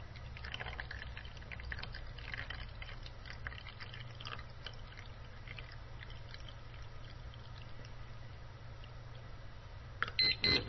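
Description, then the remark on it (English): Liquid pours steadily into a jug over a low hum, then a liquid level indicator starts beeping and vibrating intermittently, perfectly in sync, near the end, with short, fairly loud pulses. “You can hear quite a distinct intermittent beep and quite a distinct intermittent vibrate.”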